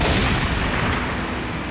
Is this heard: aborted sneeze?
no